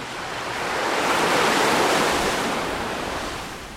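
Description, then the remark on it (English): A single ocean wave rolls in and breaks on the shore of the Yucatan Peninsula, a broad hissing rush that swells to a peak midway and then slowly recedes, with no voices present. “It's the warm waters off the Yucatan Peninsula and the Atlantic Ocean that help drive tropical storms.”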